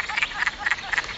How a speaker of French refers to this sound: puis je passe près d'un étang forestier. attendez vous C'est le son des grenouilles des bois.